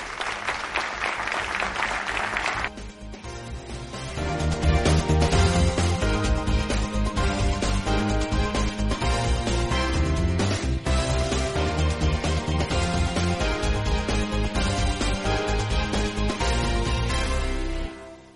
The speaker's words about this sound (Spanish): Un fuerte aplauso para todos nosotros y para los ponentes.